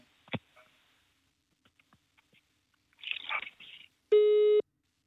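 Scattered clicks and a short burst of rustling noise give way to a single loud, steady telephone busy-tone beep near the end, about half a second long, with no talking.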